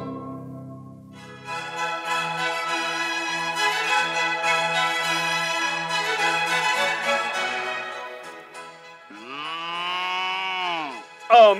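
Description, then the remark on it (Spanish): Cows moo in long, drawn-out bellows, several overlapping into a loud sustained chorus, then one more rising-and-falling moo rings out clearly near the end, with no one talking. “amigo ganadero, sus vacas distinguen lo mejor.”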